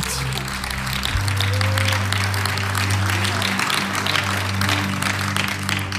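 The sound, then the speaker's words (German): A large audience applauds steadily for several seconds, a dense, even wash of clapping with a low sustained tone humming underneath. “Ja, ist ein Applaus wert.”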